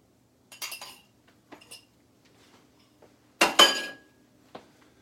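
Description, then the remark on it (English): Metal utensils clink and scrape against a dish in several short bursts, with a louder clatter near the end and no talking, while an egg mixture seasoned with pepper and salt is divided evenly between two halves. “And then it said divide it evenly in between the two uh, halves.”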